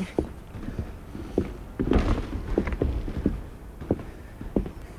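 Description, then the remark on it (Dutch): Hollow, knocking footsteps cross wooden boards at an uneven walking pace, each step a dull thunk, with a creak-like rumble in the middle and no one talking, as people walk over planks laid across a very old, rickety jetty. “Ja, het, ook, het ziet er ook wel heel oud uit, maar er liggen wat planken over. Volgens mij kunnen we daar wel overheen lopen.”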